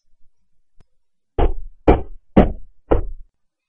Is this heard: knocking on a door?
yes